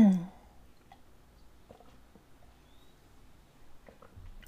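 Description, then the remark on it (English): Someone quietly sips water, with small wet clicks and soft swallowing sounds spread over a few seconds of near silence after a brief vocal sound at the start. “Let me just have a sip of my water because my throat is kind of drying out a little bit.”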